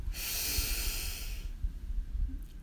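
A single deep breath drawn in through the nose or mouth, airy, lasting about a second and a half before fading into near silence, taken during a guided breathing exercise to release stress and tension.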